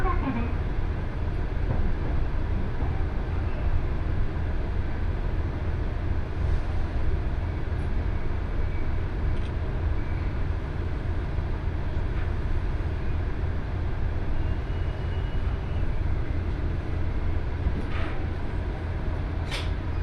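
Steady, continuous rumble of a train on the Kesennuma Line rolling along the tracks between Maeyachi and Yanaizu, heard from inside a car, with occasional faint clicks and rattles over the low drone and no talking.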